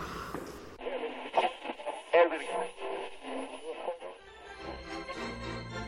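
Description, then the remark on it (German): A radio clicks on and immediately plays a mix of voices and music, fairly loud and slightly tinny, with the broadcast shifting character partway through before settling into steady programme sound. “Ich höre jetzt lieber Radio.”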